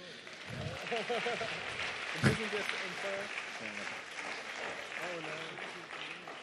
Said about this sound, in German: Und wir geben den dreien einen Applaus.